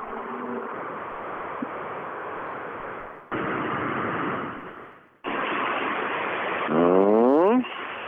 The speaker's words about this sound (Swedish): Mm, en bil på väg mot målet i alla fall, hörs genom skogen.